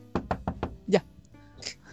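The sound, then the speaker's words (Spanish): Four quick, evenly spaced knocks on wood ring out crisp, followed by a brief vocal noise and a faint voice. “Deja golpear madera.”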